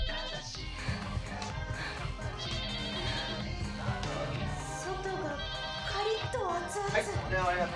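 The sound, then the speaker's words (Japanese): A telephone in a cat-themed cafe rings in bursts of high, steady electronic tones, mixed with dense background sound and what seems to be voices underneath. “これ電話が鳴ってきたりしますからね電話出ないのこれは出ますよ出てくだやっぱりこれ基本的カフェですから”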